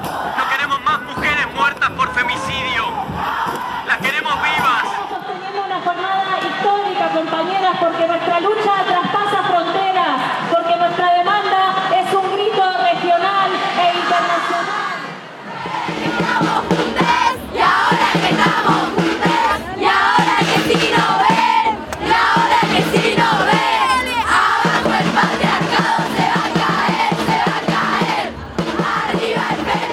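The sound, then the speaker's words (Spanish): A large crowd gathered in Plaza de Mayo chants "Ni una menos" and yells in unison, voices rising and falling in a steady rhythmic cadence, loud and continuous, with a brief dip midway before the roaring chant resumes, denser and more cheering. “Una multitud se concentró en Plaza de Mayo al grito de Ni una menos”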